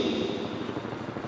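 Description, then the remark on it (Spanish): A helicopter drones steadily overhead, its rotor thumping in a fast, even low-pitched beat beneath a broad, whooshing engine roar at moderate volume. “un helicóptero. ¿Quién será? ¿Será el presidente?”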